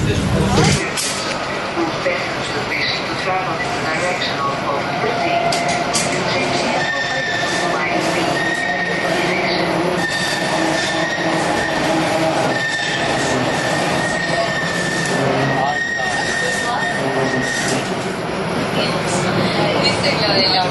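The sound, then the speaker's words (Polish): A small metro car rumbles along the rails, loud and steady for the whole stretch, with high metallic wheel squeals and clattering over the tracks and some voices mixed in. “Jakie malutkie wagonik malutki, jak o coś chodzi?”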